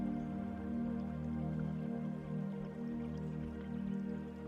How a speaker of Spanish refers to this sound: Muy cerca de ti hay un río no muy grande, de aguas cristalinas y muy tranquilas el sonido de sus aguas te produce una agradable sensación de bienestar. Escúchalo.